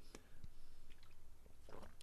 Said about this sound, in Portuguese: Eu, nossa, eu vou até tomar uma água aqui pra, porque eu vou falar muito sobre esse assunto, velho.